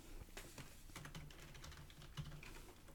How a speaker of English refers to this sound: Oop shit typing too fast.